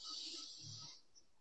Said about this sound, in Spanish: Y esa respiración recién nos sirve para venir, para llegar a donde estamos, ¿no? Porque a veces estamos en muchos lugares a la vez. Entonces tomo una respiración de vuelta, respiro